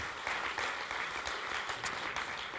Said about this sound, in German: wer ist denn aus Hippolstein am Start, Leute? Geben wir auch nochmal einen Riesenapplaus. So cool, dass ihr mit dabei seid.